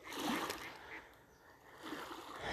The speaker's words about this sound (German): Könnt ihr die Quaken der Ente hören?